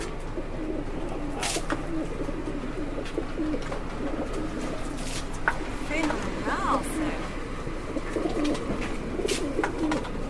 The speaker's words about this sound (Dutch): En die zorgt voor, kijk, al de duiven.